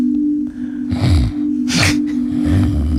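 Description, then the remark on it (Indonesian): A person imitates snoring with their mouth, three rough, rattling snorts in a steady rhythm, loud, over a constant low electrical hum. “Kenapa ngorok?”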